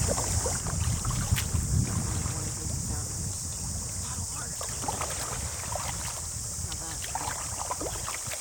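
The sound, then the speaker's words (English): Paddle strokes dip and splash in the water, repeating at a steady rhythm from a small boat in New Zealand, with constant wind rushing over the microphone. “I want to hear your paddle so I have the sound of you working.”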